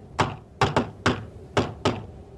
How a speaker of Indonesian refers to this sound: Tiba-tiba terdengar suara ketukan.